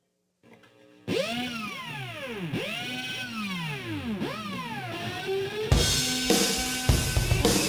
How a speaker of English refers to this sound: playing the guitar with a power drill